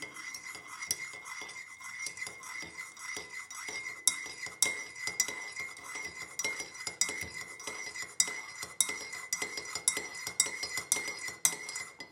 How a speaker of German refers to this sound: So, Kaffee steht. Setze mich gemütlich hin. Und werde rühren.